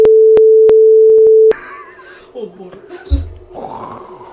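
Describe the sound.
A washing machine gives a loud, steady mid-pitched whine with a few faint clicks for about a second and a half, then cuts off as muffled voices and rustling take over.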